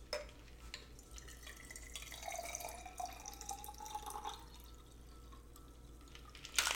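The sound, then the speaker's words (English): A drink is strained, with liquid trickling and dripping steadily into a glass for several seconds, ending in a brief sharp clink. No one speaks. “All right, we're going to strain it.”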